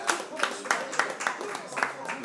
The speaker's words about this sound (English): It looks a lot like Valtteri Bottas is maintaining his second place, so well done to him. He's held off the charge of Lewis Hamilton. He gets a bigger round of applause, I think.